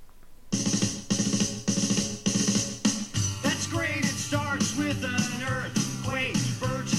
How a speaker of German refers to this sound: Ähm, Alexa, spiele Musik. Hier ist eine Playlist, das ist natürlich jetzt nur mit dem Anfang Echo, also wir haben jetzt keinen Stereo-Klang oder sonst irgendetwas. Amazon Music.